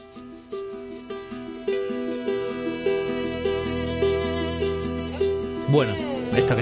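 The theme of the HBO series The Last of Us plays: plucked, guitar-like notes repeating in a steady, gentle pattern over sustained low tones, swelling slightly toward the end, with no voices.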